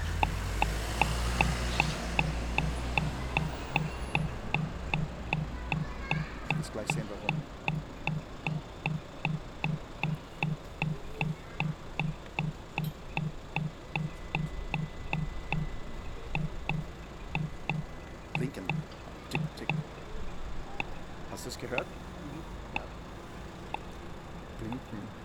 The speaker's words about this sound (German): das, das Tick, Tick, Tick, Tick, Tick, Tick, das ist das Blinken.